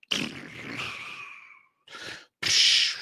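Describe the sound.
A voice imitates a crash and burn: a long descending whooshing hiss that fades out, followed by two short bursts of breathy, noisy explosion sounds, the last one loud and harsh.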